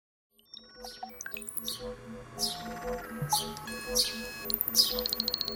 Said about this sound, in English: What's that? Polly want a cracker? Polly want a cracker? Silly bird.